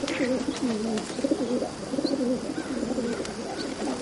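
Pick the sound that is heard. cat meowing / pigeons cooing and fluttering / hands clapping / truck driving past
pigeons cooing and fluttering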